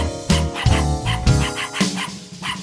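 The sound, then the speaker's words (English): A small wiener dog yaps over and over in loud, evenly spaced bursts, about five sharp yips with short gaps between them. “My neighbor's wiener dog yaps all night long, so to keep from killing him, I wrote him a song.”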